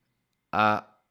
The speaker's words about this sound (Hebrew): הוצאת האוויר הספונטנית הזאת שאני עושה עכשיו, זה מעצים לי את החיבור לעכשיו. למה? כי נשיפה החוצה של אוויר, היא מחברת אותנו למערכת הפרסימפטית,